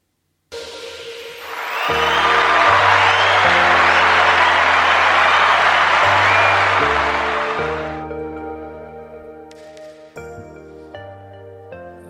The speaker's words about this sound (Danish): som klapsalverne indikerer, så skal vi øh, have uddelt vores traditionsrige skulderklap her til sidst i udsendelsen